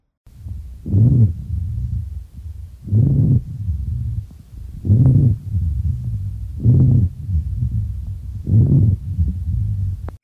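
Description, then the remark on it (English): Low, coarse rumbling rhonchi lung sounds swell five times at a steady pace, roughly every two seconds, over a continuous deep drone, with no talking. “Low rumbling or snoring, that's classically heard with pneumonia, and that's rhonchi.”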